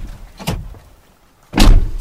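A car door opens after a seatbelt is unlatched: a lighter latch clack, a brief pause, then a louder, heavier thunk as the door swings out and a person lurches outside. No one speaks.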